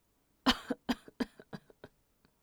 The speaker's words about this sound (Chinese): 说着，一拳捶在床上，又咳嗽起来。